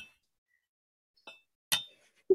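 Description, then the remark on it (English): Glasses clink together a few times in a toast, short bright rings separated by pauses, with the loudest tap near the end followed by a duller knock. “cheers. Clink. I'm gonna clink my with myself.”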